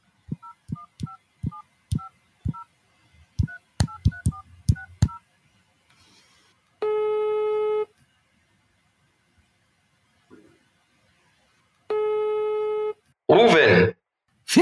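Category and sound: signal or alarm, telephone call being dialed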